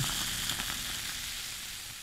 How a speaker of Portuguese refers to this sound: Abra uma lata de refrigerante quente, despeje seu líquido num copo de plástico, contemple a explosão das bolhas de refrigerante.